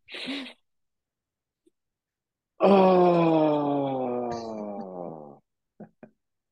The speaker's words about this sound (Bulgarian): двойно, двойно вдишване през носа, с, второто е кратко като доливане и след това дълго вокално издишване а, през устата, като се опитваш нали, да има вибрация и да се отпуснат мускулите на лицето.